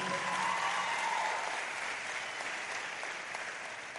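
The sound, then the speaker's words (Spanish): An audience applauds the pastor steadily, a dense wash of many hands clapping at an even level that tapers off slightly toward the end, with no voices rising above it. “Así que vamos a darle un aplauso también a la pastora.”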